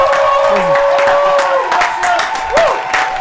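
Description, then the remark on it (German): A live crowd roars and cheers continuously, with scattered clapping and individual voices shouting out over the steady wall of noise. “Bester Podcast in Deutschland, habe ich gerade gehört aus dem Publikum.”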